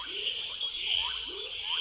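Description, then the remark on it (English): Frogs call with short rising and falling chirps over a steady, high insect drone, a dense nighttime chorus of overlapping voices at moderate volume with no one speaking. “That all of the voices, all of the insect voices, and the mammal voices, and the frog voices,”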